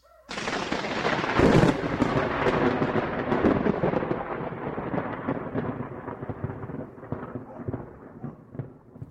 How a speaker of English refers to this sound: Oh my god, could this wall move any slower? You can't rush a pocket door